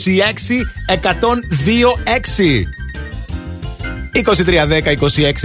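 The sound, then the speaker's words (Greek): A telephone rings steadily as a caller phones in for a call-in prize game, while a lively voice talks loudly over it almost the whole time, the ringing tone running beneath the chatter. “Να το, το, τηλέφωνο για να δούμε ποιον έχουμε στην γραμμούλα.”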